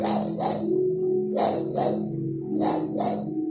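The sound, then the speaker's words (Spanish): A voice imitates the red scanner light of KITT, the talking car from the series Knight Rider (El auto increíble), a humming tone with breathy whooshing sweeps that rise and fall three times in a steady back-and-forth rhythm, moderately loud. “¿viste alguna vez la serie del auto increíble? Como Kit traía su luz roja de...”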